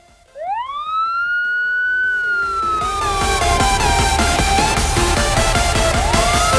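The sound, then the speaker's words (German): A 'subscriber alarm' siren sound effect winds up sharply to a high wail, then slowly sinks in pitch as a dense, rough wash of noise swells underneath. Loud and steady, with no talking. “Subscriber alarm.”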